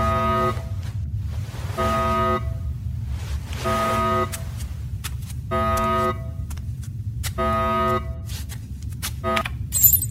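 alarm going off

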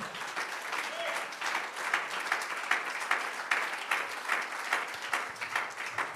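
audience applauding

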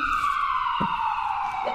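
ambulance siren

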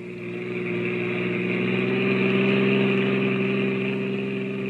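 car engine running

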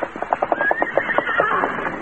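horse neighing

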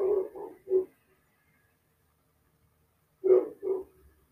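dog barking

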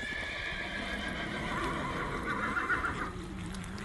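horses galloping and neighing

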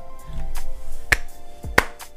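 slow hand clapping

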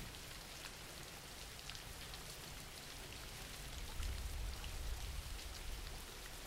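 rain falling

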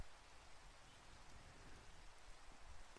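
steady rain falling

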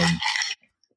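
ice cubes clinking

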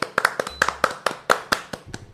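applause

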